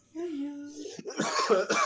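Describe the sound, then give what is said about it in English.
A drawn-out voiced hum gives way to a burst of several harsh coughs in quick succession, rough and loud, filling the second half. “Do you cough in real space?”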